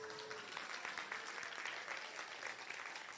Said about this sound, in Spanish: ¿Cuántos le dan un aplauso al Señor